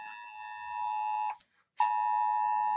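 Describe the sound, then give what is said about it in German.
An emergency warning alert (a 'Hauptwarnmeldung' emergency alarm) sounding on the national Warning Day blares as a loud, steady electronic tone, cuts out for a brief moment, then resumes just as strongly. No one speaks. “Gehen jetzt die Alarmanlagen los?”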